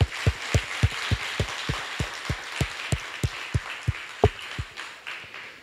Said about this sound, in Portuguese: Deus faz maravilhas ou não faz? Dá uma salva de palmas para o nosso Deus.